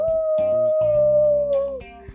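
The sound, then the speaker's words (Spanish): Wolf kids in a Catboy story howl together in one long, steady, drawn-out cry lasting about two seconds, loud, with a low musical backdrop underneath that fades as the howl ends. “Aullaron los lobos al mismo tiempo, lo que provocó que Catboy fuera arrojado al otro lado de la pared.”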